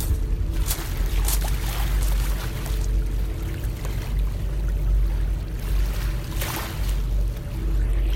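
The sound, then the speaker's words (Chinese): Waves wash continuously over a pebble beach by the sea, a steady low rumble with a few louder hissing surges. A person walking along the shore makes soft footsteps that crunch faintly beneath the surf. No one speaks. “这就是走在海边，我的脚步声和海水打在就是石子滩上的声音。”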